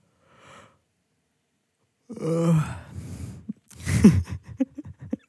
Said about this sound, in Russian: Блять, вот за этот зевок я, я бы так тебе хотел пощечину дать, просто.